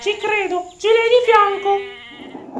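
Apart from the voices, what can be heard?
sheep bleating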